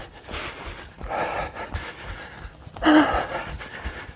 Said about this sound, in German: Uiuiui. Von am Schnaufen und am langsam Laufen.